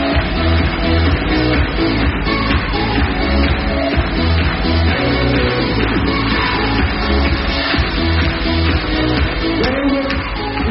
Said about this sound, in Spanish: Demos un fuerte aplauso a nuestro chef, por favor.